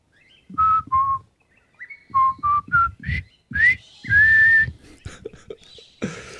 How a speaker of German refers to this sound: Ja, ich pfeif mal. Ich mal pfeifen? Ja, ich mach mal einfach.